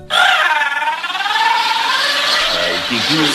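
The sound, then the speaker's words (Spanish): A loud, exaggerated childlike crying wail, one long continuous bawl with a wavering, quivering pitch, alone for about three seconds: the signature cry of a comedian's childlike character with puffed cheeks and a sailor suit. “Este personaje mostraba algunas cualidades únicas, como cachetes inflados, ojos saltones, piernas torcidas, traje de marinerito, gorra de colores y un llanto único.”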